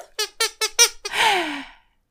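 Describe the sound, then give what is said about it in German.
A squeaky disgust sound effect for gross things such as cat vomit: five quick, high squeaks in a rapid burst, then one longer, breathy squeal that slides downward and fades out. Fairly loud, with no talking. “Zum Glück gibt's ja bei Unterkatzen die Ekelquietsche.”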